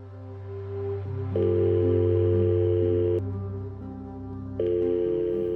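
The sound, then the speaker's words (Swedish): A telephone call to Bengt rings out with no answer on Friday 22 March 2013, long steady ringback tones repeating over a low, humming drone, with no voices. “Fredagen den 22 mars 2013 slutar Bengt plötsligt att svara i telefon.”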